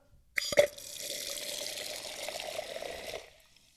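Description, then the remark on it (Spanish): Soda water being poured: a brief clatter and hiss at the start, then a steady fizzing gush that runs for close to three seconds before stopping. No one speaks. “bueno, quien esté maravillado con ese fabuloso sonido, trajo soda, algo raro en su casa y más raro aún teniendo en cuenta que no tiene alcohol,”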